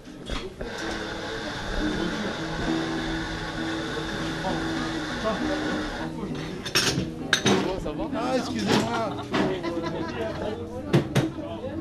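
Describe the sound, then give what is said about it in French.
Inside a small café, Aouba, a coffee roaster since 1938 in a tiny shop just behind the fruit and vegetable stalls of the Aligre market in Paris, a steady murmur of background chatter runs under sharp, bright clinks of cups and saucers, the clinking growing busier and more frequent in the second half. “je vais suivre le conseil qu'un commerçant m'a donné, aller boire un café chez Aouba, torréfacteur, depuis 1938. C'est une toute petite boutique, juste derrière les étals de fruits et légumes.”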